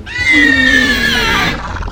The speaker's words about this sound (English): In fact, now that you take a closer look, that seems to be exactly what this velociraptor has just done it lets out a screech.